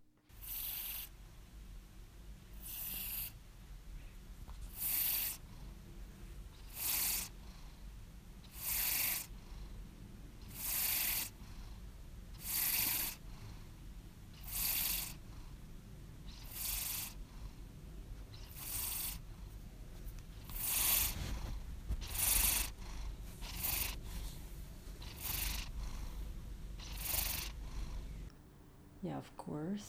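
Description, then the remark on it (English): A male cat purrs loudly and steadily, a continuous low rumble with a raspy, breathy swell roughly every two seconds as it breathes in and out. “Um, so uh, after we listen to my boy cat purr his guts out”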